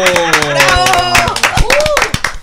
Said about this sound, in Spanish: tu próximo ministro de Educación. un aplauso.